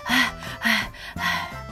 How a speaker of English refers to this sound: Eugenia was breathing very loudly. 哦，听听啊，她呼吸的声音非常急促，她累坏了。